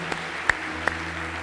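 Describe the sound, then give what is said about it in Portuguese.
An audience applauding Jesus: a steady wash of many hands clapping at once, with a few sharper individual claps popping out above the dense crackle. No one speaks. “Dá um forte aplauso a Jesus aí.”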